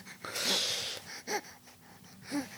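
Heavy, wheezy breathing: a long rasping breath followed by two shorter, raspy wheezes in an uneven rhythm, with no talking.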